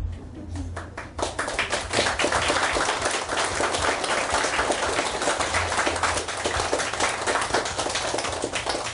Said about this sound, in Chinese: 但是不鼓掌也无所谓啦，反正你欠我就对了。 就是怕鼓掌了打扰你说话。